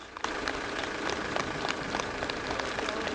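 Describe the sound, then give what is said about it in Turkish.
A crowd claps steadily, a dense, continuous patter of many hands starting abruptly and holding at an even level throughout, with no voices standing out, as a mother, father and their 8.5-month-old baby who recovered from COVID-19 are discharged from a state hospital. “Anne, baba ve bebekleri koronavirüsü yenmeyi başardı. Alkışlarla taburcu oldular.”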